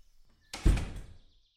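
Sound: door closing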